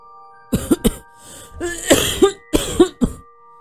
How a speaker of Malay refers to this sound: Terbatuk-batuk dia.